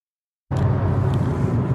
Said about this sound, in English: It's 8 o'clock Perth time uh, on Friday, the 4th of August. And as you can probably hear, we're in a car driving back down to continue our journey on the Cape to Cape walk in Western Australia.